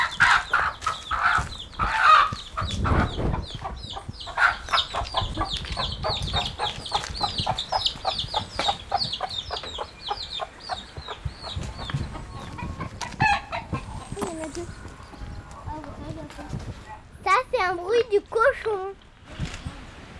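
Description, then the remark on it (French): Free-roaming chickens cluck in rapid, repeated bursts, with a rooster crowing rising near the end, set against outdoor background noise, in the Guadeloupe islands. “Il y a beaucoup de poulets, de poussins et de coqs qui sont en liberté.”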